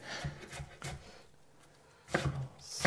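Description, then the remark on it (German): A knife finely dicing an onion on a cutting board: three crisp taps in a slow rhythm, a brief pause, then a quicker burst of several sharp chops and a faint scrape. “Ich wollte es eigentlich gar nicht so fein schneiden, wie ich es jetzt schneide.”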